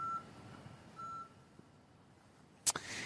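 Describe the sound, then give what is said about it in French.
Outdoor street ambience in the morning in front of a bus station in the Gare Montparnasse district of Paris: a low traffic rumble, two spaced electronic beeps like a vehicle's reversing alarm, and a sharp, loud clack near the end. No one speaks. “Reda qui est devant une station de bus.”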